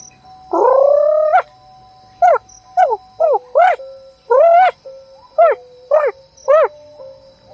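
A bird chirps loudly: one longer call, then a run of about eight short, rising whistled notes at an uneven pace, with no voices.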